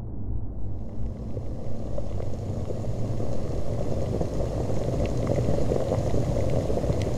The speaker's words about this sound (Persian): این صدای پختن اولین سوپ دنیاست یه سوپ قدیمی که نتیجه شد حیات